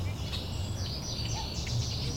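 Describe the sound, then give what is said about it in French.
Many birds chirp and twitter at once in a thick, overlapping chorus of high, quick notes over a steady low rumble, heard in a city slowed down by the health crisis. No one speaks. “Les jours passent et les pépiments s'épaississent.”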